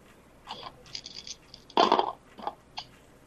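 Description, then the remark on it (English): Three dice clatter across a hard tabletop: a few light, scattered clicks, then a louder burst of rattling near the middle, and a couple of final taps as they settle. No one speaks. “Oh, and also through the power of my intense hyperfocus, I managed to find my dice.”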